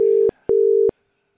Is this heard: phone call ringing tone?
yes